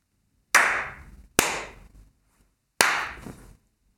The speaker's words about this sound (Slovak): Tak ťapni.